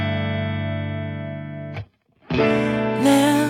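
A pop song played on the TBS Radio show Bakusho Mondai Cowboy opens with a sustained, distorted synth chord, cuts to a brief silence, then bursts back in with fuller band instrumentation and a bright rising lead line.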